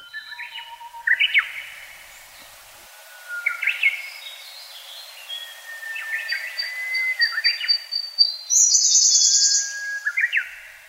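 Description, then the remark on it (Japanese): A pre-dawn chorus in a forest on the Kirifuri Plateau, recorded in 2010: mostly Siberian blue robins singing, with Japanese bush warblers and lesser cuckoos, overlapping trills and rapid chirping phrases from several birds, clear, building in density toward the end. “先週ご紹介した録音から12年経った2010年の夜明け前のコーラスですよくさえずっているのはコルリですこのほかウグイスホトトギスの鳴き声も聞こえます先週のコーラスに比べてウグイスが減ってコルリが増えてきたのがわかります”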